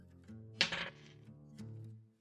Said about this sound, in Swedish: Jag har väldigt bra tärning. Jag slår en sexa igen, så jag får sju i alla fall.